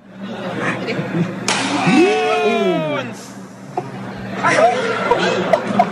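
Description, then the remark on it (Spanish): A woman's single sharp slap across her husband's face cracks through a noisy crowd outside a cinema, followed at once by a loud, rising cry, with people chattering and reacting in the background. “Bueno, pusimos un video donde está viral, donde una morra le da un trancazo, un gacho, una cachetada a su esposo.”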